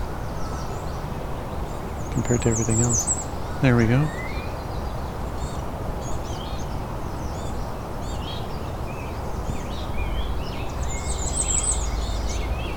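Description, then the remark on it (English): A bay-breasted warbler sings faintly, two short, very high-pitched trilling bursts separated by a long gap, with a person talking over steady outdoor background noise. “singing bay breasted warbler in front of me, but it's so quiet”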